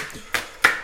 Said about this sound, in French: Et donc, ce qu'on entend là, c'est le bruit de ton couteau euh, sur des poireaux. Voilà, tout à fait, oui. On est en train de découper les poireaux.